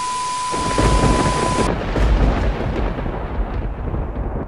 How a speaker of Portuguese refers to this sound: é, nossa, tá uma chuva forte aqui, que tá uma chuva forte. Mas vamos lá, porque tá ventando e tá balançando aqui a, a janela e a porta.